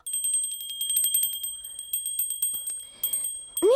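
A small bell jingles loudly and rapidly in a continuous, rhythmic series of bright rings, ending with a sharper final ring.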